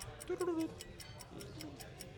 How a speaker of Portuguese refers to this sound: Difícil, hein? Deixa eu pensar. Newcastle não teve muitos. Olha o relógio.